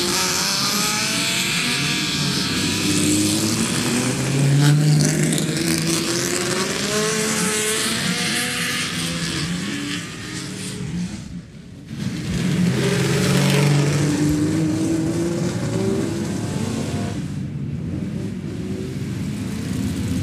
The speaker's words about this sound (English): I'm going to let you enjoy the sound of Ferrari 250s leaving the assembly area.